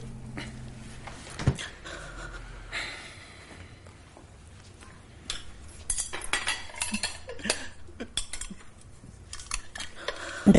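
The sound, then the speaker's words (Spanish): Dishes and cutlery clink and clatter in irregular bursts in a kitchen as breakfast leftovers are cleared away, with scraping and knocking as items are gathered and set down; a louder cluster of clatter near the end. “Vuelve a la cocina, recoge las sobras del desayuno y las guarda en el frigorífico.”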